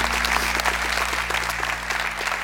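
Steady, dense applause from a group welcoming a guest who is present, a continuous wash of clapping at moderate loudness with no voices on top.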